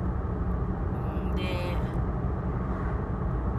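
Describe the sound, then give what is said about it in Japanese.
Steady, loud road rumble from inside a moving car on a congested road, a dense low roar that holds throughout, with a brief higher whine and hiss rising over it for a moment as the car heads into the Minato Tunnel. “混む道路を走るっていうことと、まあ、ちょっと今これ港トンネルの方に入っていくんですけど”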